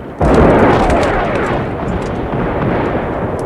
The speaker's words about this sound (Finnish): Vastarannalla myllersi raskas keskitys maata.